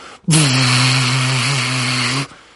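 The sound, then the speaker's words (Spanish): A voice imitates the loud, steady, infernal buzzing hum of a cinema projection room, holding one low droning tone for about two seconds, uninterrupted. “Em, eso, la sala de proyección emitía un ruido infernal, un zumbido como”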